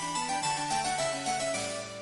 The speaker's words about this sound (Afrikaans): Ooh, dis my selfoon se luidtoon. As daardie liedjie speel, weet ek iemand probeer my bel.